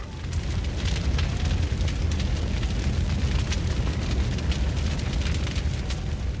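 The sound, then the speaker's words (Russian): A huge festive bonfire at a camp roars steadily, its deep rumbling flames punctuated by dense, irregular crackles and pops throughout, loud with no voices. “они с хипарем побрели вглубь лагеря, где уже горел огромный праздничный костер.”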